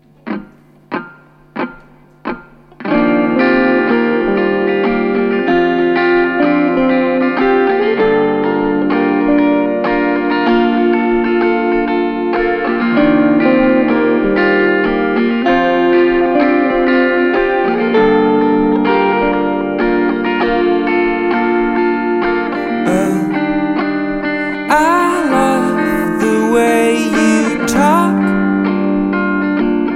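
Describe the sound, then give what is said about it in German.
Four sharp count-in clicks, then a live band in a studio with two amplifiers kicks in with effects-heavy, slightly distorted electric guitar over steady drums, playing loud and continuous rock with no talking. “Ähm, ihr habt auch äh, eine Gitarre dabei und ein Schlagzeug, sag ich mal.”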